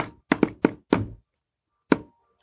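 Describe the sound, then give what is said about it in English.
Six sharp knocks tapped out as Morse code in an uneven pattern: a quick cluster of five, a pause, then one last knock. Dull and woody, with no talking. “I'm doing Morse code, you get it?”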